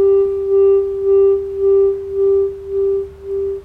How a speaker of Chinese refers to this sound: 跟随着颂钵的声音，一点一点放慢节奏。